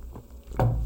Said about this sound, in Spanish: Mientras doy un sorbo a mi café ya que está muy frío por acá.